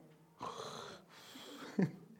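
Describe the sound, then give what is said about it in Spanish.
A voice mimics a father snoring with two drawn-out, raspy breaths, the second ending in a short snorting catch. Fairly loud, with no other speech. “Hasta ronca, ¿verdad?”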